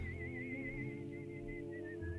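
Someone whistles a steady, high tone with a gentle wavering vibrato, holding it for a couple of seconds with a few brief breaks, over a low droning background.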